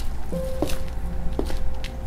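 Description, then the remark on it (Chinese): Slow, heavy footsteps of someone walking out of an event venue: two firm thudding steps about a second apart, then a fainter third, over a low steady hum. No one speaks. “哎，这没有支持者的脚步声，好沉重啊。”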